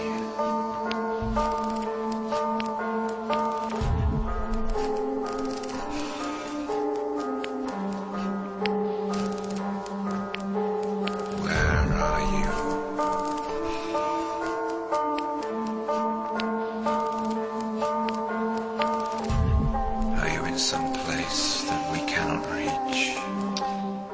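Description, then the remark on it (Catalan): Vinyl record crackle and scattered pops tick through a sustained, tonal musical bed, the clicks recurring steadily enough to act as a loose rhythm, moderately loud throughout. “Eh, bueno, clics no, bueno, el fregit i els, i els pecs. Clics no, perquè el clics seria digital, els pecs d'un vinil.”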